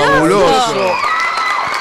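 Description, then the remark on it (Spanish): A loud burst of enthusiastic cheering after a sung performance, with several voices whooping and shouting at once, then settling into a steady wash of applause from everyone for the rest of the moment. “Estamos aplaudiendo todos, enloquecidos.”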